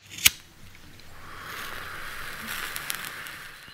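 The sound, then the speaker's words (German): A lighter clicks once, sharp, followed by a soft, steady hiss of flame as a cigarette taken from a pack in a trouser pocket is lit, with no talking. “Karl-Heinz zog eine Packung Zigaretten aus der Hosentasche und zündete sich eine an.”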